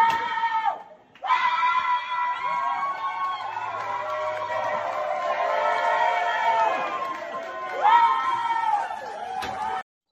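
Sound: man yelling loudly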